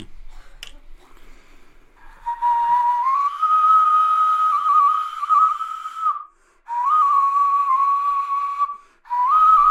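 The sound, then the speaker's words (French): A prehistoric flute played without its mouthpiece gives a breathy, airy tone, holding mostly steady mid-pitched notes with small slides, in three sustained phrases separated by brief breath pauses. “je peux enlever l'embouchure et le jouer à la façon comme la, que la première flûte et ça va, on va retrouver le, on va retrouver le, le, son de la flûte.”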